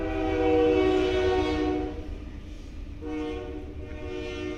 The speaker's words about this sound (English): There's our train. Lord, we thank you. We thank you that it, those unique little things that make this a church, even having the train go by uh, every Sunday or Wednesday, it's a blessing uh, for us to be able to come together.